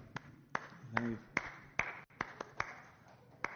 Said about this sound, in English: So I, know I get applause for that.